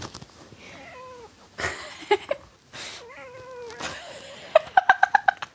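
A cat meows, several drawn-out, wavering cries with short breaks between, ending in a quick run of short, chirpy mews. No one talks.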